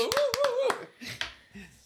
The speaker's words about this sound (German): Applaus, Applaus ja, Klatschmarsch.